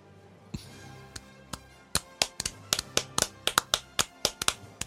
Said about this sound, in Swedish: Och sen så klappar vi i händerna.